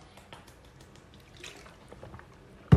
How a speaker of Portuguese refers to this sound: Estou tomando uma água aqui.